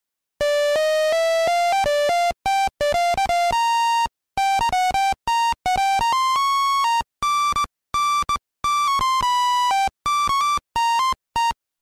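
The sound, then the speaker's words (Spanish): DOS game music playing only a melody: a single buzzy, beeping square-wave voice stepping through mid-pitched notes in loud bursts separated by brief silences, with no harmony and no talking. “En DOS escuchas solamente la melodía.”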